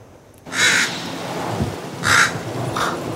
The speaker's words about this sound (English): It was the loud sound coming from overhead that first drew June Hunter's attention to crows